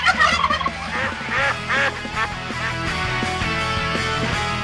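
A noisy clamor of farm fowl: geese and roosters calling over one another in loud, overlapping honks and squawks, with a dense layer of bird chatter running throughout.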